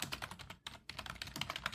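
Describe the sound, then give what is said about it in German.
Rapid, clattering keystrokes on a computer keyboard, a dense stream of clicks with one brief pause midway, steady with no voices. “Wer tippt hier eigentlich so aber wild?”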